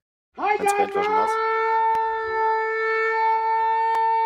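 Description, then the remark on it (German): A loud civil defense siren wail for a warning day (Warntag), seemingly imitated by a voice, starts with a brief warbling burst and then holds one steady, unbroken tone for several seconds, alone. “das war meine Sirene zum Warntag.”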